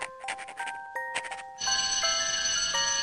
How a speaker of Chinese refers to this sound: 下课铃声响起时，我们仍埋头在本子上计算着。